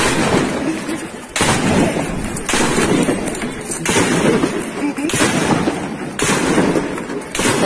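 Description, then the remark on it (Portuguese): Sharp bangs of gunfire from a street shootout in Brazil ring out every second or so over a dense, loud wash of street commotion as people run in panic, with a few voices mixed into the chaotic noise. “É armas abrigadas, apavoradas, vem de troca de tiro.”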